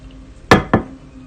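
Two quick ceramic clinks, a cup being picked up or set down while someone takes a sip of India Monsoon coffee, sharp and moderately loud against a quiet background with a faint low hum.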